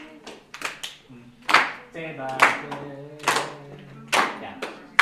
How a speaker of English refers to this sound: And now on the CD, this is where the claps start. Claps. Yeah.